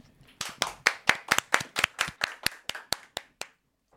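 A short burst of applause: about fifteen crisp, distinct hand claps in a quick, steady rhythm, close and fairly loud, fading slightly before stopping. No one speaks.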